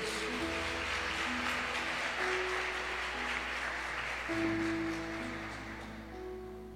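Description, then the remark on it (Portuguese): A church audience applauds for God during a worship service, steadily for several seconds, a dense, continuous clatter of many hands over sustained keyboard-like chords, with the clapping thinning out toward the end. “Dá uma salva de palmas aí ao teu Deus.”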